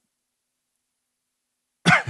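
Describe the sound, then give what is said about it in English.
After a long stretch of silence, a single short cough with a rough throat-clearing quality bursts out at the very end. “I need a cough button.”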